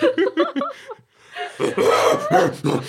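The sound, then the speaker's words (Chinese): A person imitates an angry gorilla, starting with a string of quick, rhythmic grunting huffs. After a brief pause comes a loud, rough, throaty roar that swells and pulses for over a second. “哦，这季我应该演的是猴子啊，猕猴类的嘛，猕猴类的生气，大猩猩生气应该是有那吼叫声的，对对，吼叫声。”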